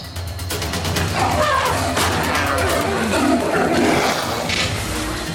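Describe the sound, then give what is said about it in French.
A tiger roars and snarls ferociously as it leaps from brush beside a sugarcane field and bites an elephant's mahout, a loud continuous growling mixed with sharp crashing and thrashing sounds as it attacks. “Le tigre furieux jaillit des broussailles à la vitesse de l'éclair, bondit à près de 3 mètres du sol, les griffes labourant l'air, et mord profondément le cornac terrifié.”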